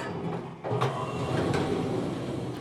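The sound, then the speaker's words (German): A door slides open amid steady rumbling, like a train or subway carriage, with a couple of sharp clunks and hisses over continuous mechanical noise, fairly loud, no voices. “Türe öffnen.”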